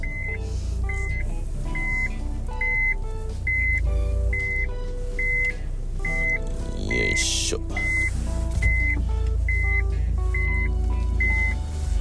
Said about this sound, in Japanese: ちょっと待ってくださいね。ちょっと待ってくださいね。車庫入れに集中するんで。よいしょ。